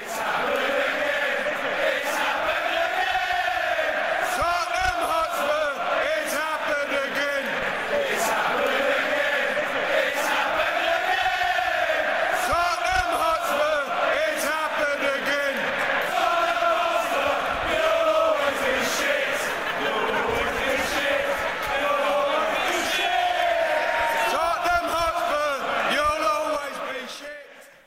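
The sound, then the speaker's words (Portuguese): A large crowd of Chelsea football fans sings a chant aimed at Tottenham at a match, a loud, sustained wall of many voices rising and falling in melody without pause for nearly half a minute. “e a torcida do Chelsea, nas duas partidas, cantou duas músicas é, em especial para o Tottenham, no final do jogo contra o Tottenham e contra o Fulham também no começo do jogo.”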